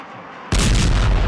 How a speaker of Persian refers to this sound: و چند لحظه بعد صدای انفجاری